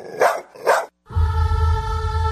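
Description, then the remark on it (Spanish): A dog barks twice in quick succession, two loud, sharp bursts, followed after a brief pause by a steady, sustained tonal hum. “Ay, ese perro huele muy feo.”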